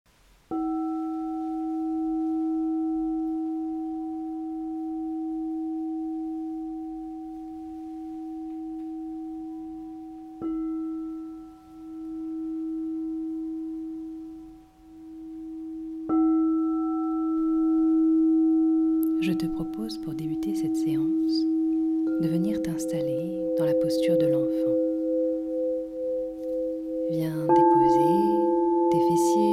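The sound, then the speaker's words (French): Crystal singing bowls ring out in long, pure sustained tones during a yin yoga practice, with a fresh bowl sounding every several seconds and layering over the fading hum, joined later by soft, shimmering textures underneath. “Libérer le coeur au son des bols de cristal”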